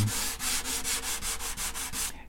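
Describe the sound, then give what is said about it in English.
Rhythmic sanding strokes rasp across a wooden guitar top, about nine steady back-and-forth passes, bright and scratchy, with no voices. “He can hear when to stop sanding, not by tapping, just by sanding.”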